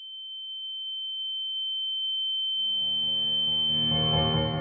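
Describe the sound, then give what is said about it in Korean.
A steady, piercing high-pitched ringing tone, like ears ringing, holds throughout; midway a dense, swelling rush of noise builds beneath it and grows louder toward the end. “갑자기 귀가 멍하고 눈앞이 캄캄해졌다.”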